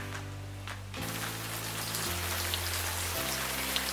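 Steady rain pours down as a dense, even hiss that swells in after a quiet start, with sustained low musical chords humming underneath and shifting a few times.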